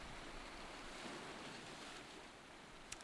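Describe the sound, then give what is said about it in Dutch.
A steady, continuous wash of ocean surf rolls on at a moderate level with no voices, a broad hissing rumble of waves on the shore, with one brief click near the end. “Langzaamaan laat je het beeld en het geluid van de golven los.”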